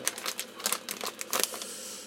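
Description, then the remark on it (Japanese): Crinkly rustling of a plastic bag of bought coffee being handled and opened at home, a rapid series of irregular crackling bursts over about two seconds, with no talking. “なのであれですねもうついに家ですいませんねちょっとガサガサやって袋を買ったコーヒーのコーヒーをね”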